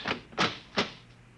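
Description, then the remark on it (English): Three sharp knocks on a door, unevenly spaced, the second and third a little louder, with no one speaking. “There was a knock on the door.”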